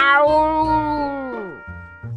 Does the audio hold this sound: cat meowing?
yes